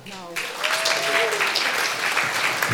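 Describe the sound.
A crowd breaks into steady applause, a dense wash of clapping that starts abruptly and holds at a fairly loud, even level, with a brief voice and a few cheers rising through it.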